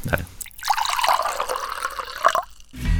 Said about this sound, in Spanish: Tomemos un poquito de agua